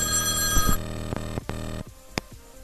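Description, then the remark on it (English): A payphone bell rings loudly and briefly, its bright metallic tone cutting off after under a second, followed by a few sharp clicks like a receiver being handled against a quiet background. “Like, answer my payphone.”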